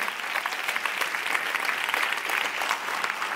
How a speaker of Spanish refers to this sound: Si ese es el aplauso, dáselo mejor.